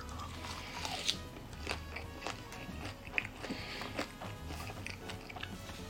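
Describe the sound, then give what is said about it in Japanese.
Someone chewing a natto seaweed roll with Tabasco: soft, wet crunches and bites in an irregular rhythm, with a few sharper crackles standing out, and no talking. “納豆お化けがやってきたということでタバスコ納豆のり巻きいきます”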